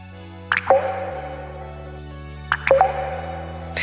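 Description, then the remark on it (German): A dry faucet sputters and gurgles in two short bursts, each ending in hollow drip-like plops, with a hum in the background and a brief hiss at the end. “Wasserhahn auf, Wasser sprudelt. Aber was, wenn das bald nicht mehr so ist? In Brandenburg könnte es demnächst so klingen.”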